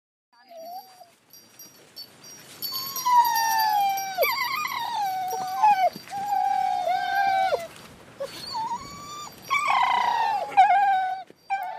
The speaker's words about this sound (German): Zurück auf der Drückjagd. Mittlerweile sind wir in kleinen Gruppen in den Wald gefahren. Die Hunde werden aus dem Auto geholt. Die sind total aufgedreht.